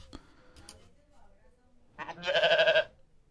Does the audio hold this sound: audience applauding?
no